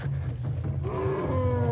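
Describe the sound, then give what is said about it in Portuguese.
A deep, steady rumbling from at least four elephants passing close by, with a droning low call that rises into a tonal, moaning sound partway through, nearby and fairly loud. “Os elefantes estão passando bem aqui agora.”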